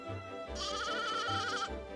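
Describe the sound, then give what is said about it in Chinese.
A lamb gives one long, quavering bleat lasting about a second, its wavering pitch trembling like laughter, with a low rumble before and after. “小绵羊叫着，它呀，好像也在笑呢。”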